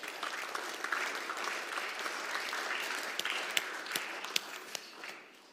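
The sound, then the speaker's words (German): An audience applauds two talk guests steadily, a dense wash of many hands clapping with a few sharper individual claps standing out near the end before it fades away. “Gebt ihnen auch mal einen Applaus.”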